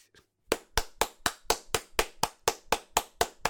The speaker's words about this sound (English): but my, mine mine can. Can it? Yeah, mine picks up my clapping.